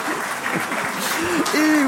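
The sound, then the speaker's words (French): An audience claps steadily for two seconds for contestants who won the banco and chose to stop, a dense, even patter of many hands, with voices calling out over the applause toward the end. “On vous applaudit.”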